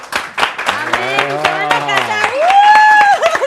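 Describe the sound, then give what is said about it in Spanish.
Applause of quick, steady handclaps that runs the whole time, with a voice calling out over it in a long tone that slides upward near the end. “Eso, Eso le merece aplausos reales.”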